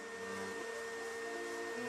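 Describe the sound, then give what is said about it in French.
A vacuum cleaner runs steadily, its motor whine holding an even pitch with a constant airy roar for the whole stretch, with no voices; night-time cleaning in a luxury shop on the Champs-Élysées in Paris. “Une fois la nuit tombée, à travers les vitrines luxueuses, on peut observer les mères de familles immigrées sortir l'artillerie lourde. Aspirateurs et plumeaux Swiffer.”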